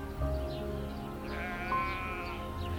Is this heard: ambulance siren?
no